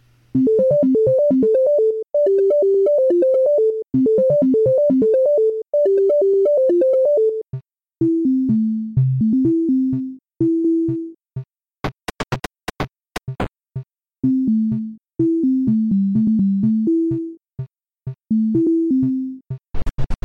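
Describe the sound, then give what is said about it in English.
Early computer-synthesized music, an experimental piece titled "Conversations with a Computer" built from basic waveforms (sawtooth, square and triangle waves, random noise) used as instruments: bright buzzy sawtooth tones in quick repeating melodic patterns, then lower stuttering phrases broken by sharp bursts of noise, loud and with no voices. “And the first few experiments, I basically just used those as instruments on my own.”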